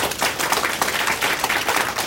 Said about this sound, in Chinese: 但是你们愿意吗？愿意。愿意再次给自己一个热烈掌声，好吗？